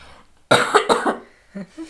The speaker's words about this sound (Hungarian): Csak én is köhögök egyet.